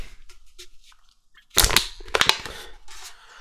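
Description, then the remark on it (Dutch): A drink can produced in Sweden is cracked open: a sharp metallic snap with a burst of hiss, then a few quick clicks and a soft fizz trailing off, with no talking. “Goed, ik ga het blikje kraken.”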